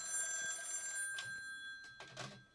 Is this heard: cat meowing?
no